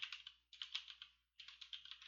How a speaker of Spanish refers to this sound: Mira, ahorita mi, mi research rápido, que bueno, creo que se oye por mi teclado mecánico